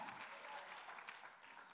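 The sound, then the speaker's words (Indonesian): Thin, scattered applause from an audience, a soft steady patter of clapping that stays fairly quiet and unenthusiastic throughout, with no one speaking. “Jadi tepuk tangan saya kurang mantap.”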